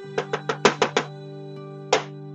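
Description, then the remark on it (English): Six quick, hollow taps in an uneven run on an Xbox game console, then a lone tap after a pause, fairly sharp over a steady low electronic hum. “Uh, I don't know if you can hear, but I'm tapping tapping it right now.”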